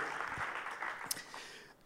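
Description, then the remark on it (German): An audience applauds the production team in a steady, dense wash of clapping that holds at an even level for about two seconds, then thins slightly toward the end. “Lass uns diesen Leuten einen großen Applaus geben, weil die machen so vieles so cool möglich.”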